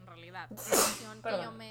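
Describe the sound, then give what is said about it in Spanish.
A single loud sneeze bursts out with a sharp breathy hiss, briefly interrupting a person talking before and after it. “Uh, salud.”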